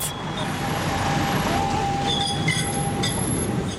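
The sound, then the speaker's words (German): Appenzellerbahnen Tango trains' wheels squeal against the rails in a sustained, piercing whine that rises and falls over steady rumbling traffic noise, loud throughout. “Die Appenzellerbahnen machen jetzt aber zuerst einmal zusammen mit der betroffenen Gemeinde tiefe Lärmmessungen, um zu schauen, wie laut das die Tangos wirklich kreischen.”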